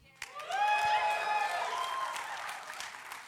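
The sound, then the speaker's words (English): An audience erupts in cheers and applause, with sustained high whoops and shouts over steady clapping. It swells quickly, then holds loud before easing slightly toward the end. “Make some noise in this place.”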